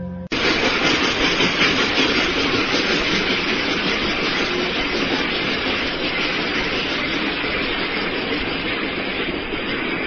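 A train rumbles steadily along the rails, loud, its broad roaring clatter holding constant for the full ten seconds with no voices present.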